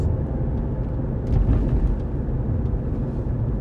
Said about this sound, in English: but I'm in the car, so you know, it would make sense for the sounds.